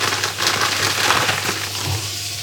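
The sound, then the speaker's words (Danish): A piece of organic WH-brand crispbread with seeds and kernels being snapped apart at a kitchen counter, a dry, brittle crackling of sharp little splinters that keeps going for a couple of seconds at a steady, moderate loudness, with no voices. “Og jeg går over til køkkenbordet her griber en pakke økologisk knækbrød med frø og kerner, også af mærket WH, og tager et stykke knækbrød op,”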